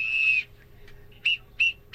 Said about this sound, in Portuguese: Esse é áudio? Ele tá pitando.